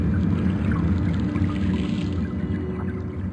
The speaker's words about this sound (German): Partikel und Schallwellen geraten auch durch die diversen geophonischen Elemente in Bewegung. Wellen und Winde sind unter Wasser lautstark zu hören, aber auch Strömungen und regelrechte Unterwasserstürme am Meeresgrund, die alles mit sich reißen.